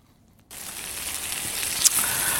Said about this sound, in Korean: 자, 오늘 보물소리는 2월의 첫날, 그리고 월요일부터 이 소리 듣겠습니다. 이게 저, 어떻게 보면 빗소리 같기도 한데 이게 치, 치, 고기 굽는 소리입니다.